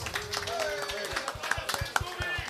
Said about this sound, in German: Einmal Applaus für jeden, der heute hergekommen ist.